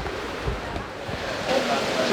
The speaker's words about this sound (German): Ja, wir gehen jetzt mal rüber zur Wassergymnastik, die hier gerade im Aktionsbecken läuft.